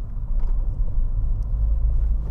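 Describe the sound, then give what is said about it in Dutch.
A steady, low car engine rumble from inside a moving car while the speaker drives and lets another car go first, droning continuously with no voices or other distinct sounds over it. “Nou, ik eh, moet eventjes een andere auto voorlaten.”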